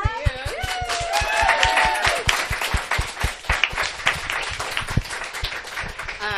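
An audience at an evening event hosted by Trident Booksellers in Boston breaks into steady applause, many hands clapping in a dense, fast patter that holds strong for several seconds, with a few brief voices and whoops rising over it.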